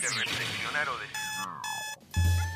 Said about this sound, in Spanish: Sí, sonó el despertador.